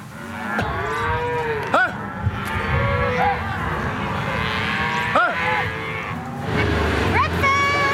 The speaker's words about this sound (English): because there's a lot of cows and calves here.